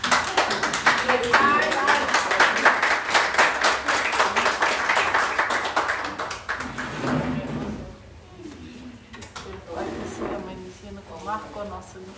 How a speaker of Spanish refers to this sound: Un aplauso a la maestros